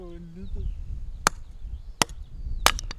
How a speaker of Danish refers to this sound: Det flik, flikker vi jo noget brænde her.